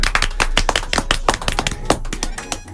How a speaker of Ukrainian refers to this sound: Давайте оплесками ті, хто сидять в машині, Ой, в машині, і ті, хто сидять в студії,